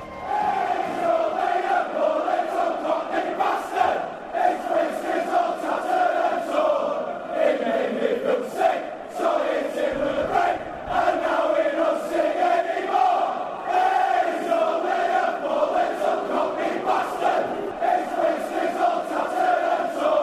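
A large crowd of London football supporters sings a terrace chant in unison. It is a steady, melodic swell of many voices that carries on continuously and loudly, with a brief dip partway through.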